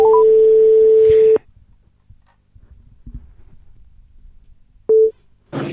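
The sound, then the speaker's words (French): A steady electronic telephone ringback tone from an outgoing call-back sounds loudly for over a second, cuts off, then after a quiet pause a second short burst of the same tone begins before the line goes quiet again. “a tenté de nous appeler on va, je vais rappeler”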